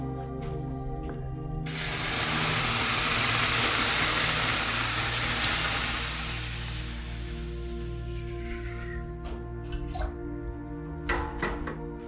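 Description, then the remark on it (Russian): Water is poured onto hot stones in the stove of a banya (Russian sauna) to make the first steam, bursting into a loud, sustained hiss of steam that swells for several seconds and slowly fades, followed by scattered crackles and drips. “И в первый раз подам воду на камни, для того, чтобы у нас появился первый пар.”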